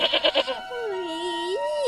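A goat bleats, starting with four quick stuttering calls and then stretching into one long, wavering bleat that rises at the end. No one speaks.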